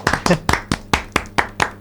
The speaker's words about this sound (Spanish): Y hemos bajado poquito a poco el sonido ir despidiendo la canción y ahora aplaudimos.